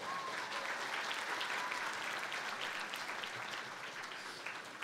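An audience claps in a dense, steady burst of applause for a singer after a song of praise, holding at an even level for about five seconds, with no voices standing out above it.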